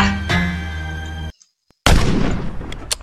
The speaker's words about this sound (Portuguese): Dá o tiro de misericórdia.